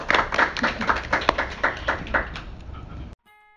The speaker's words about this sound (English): We're going to open it up to questions from Dr. Camden's class now, but um, if you could just give Dr. Shaker a brief round of applause.